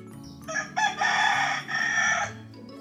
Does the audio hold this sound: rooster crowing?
yes